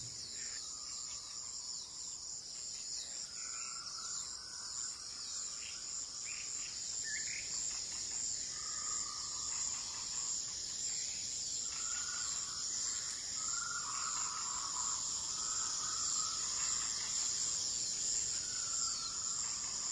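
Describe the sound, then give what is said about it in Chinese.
A steady, high-pitched chorus of night insects chirps without pause, while shorter, lower calls from birds rise and fall over it at irregular intervals. No one speaks. “夜色非常的美，你可以看到漫天的星星，也可以听到各种虫鸣鸟叫。”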